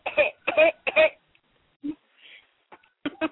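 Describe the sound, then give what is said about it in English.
A person imitates an African grey parrot's mimicked cough with three quick, harsh coughs in a row, followed by a few softer scattered vocal noises. “My dad does have have an African gray that coughs and sneezes though.”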